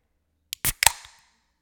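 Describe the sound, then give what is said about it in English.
A drink can is cracked open into a microphone: a small click, a sharp metallic pop, then a brief fizzing hiss that fades within half a second. No voices. “now you're officially going to crack a can into the microphone.”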